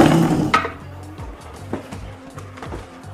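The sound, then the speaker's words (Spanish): Someone tumbles off a chair: a loud scraping crash at the start, then a string of lighter wooden knocks and rattles as things settle. “Me caí de la silla, güey.”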